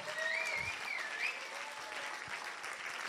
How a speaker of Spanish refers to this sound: ¿Por qué no le da un aplauso fuerte a Jesús?